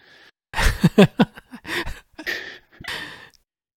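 Breathy exhales and gasps right up against a microphone, several uneven breaths in a row with a few voiced, sigh-like catches, and no talking.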